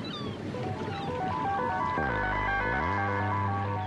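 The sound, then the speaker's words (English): A boat's motor drones steadily over lapping water, its engine note dropping low as it throttles down, then rising again as the boat pulls alongside a little jetty at a small island, loud. “The boat pulls alongside a little jetty, and the doctor jumps out with the mooring rope.”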